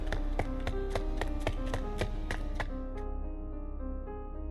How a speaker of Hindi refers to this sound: किसी के कदमों की आवाज पूरे घर में गूंजती है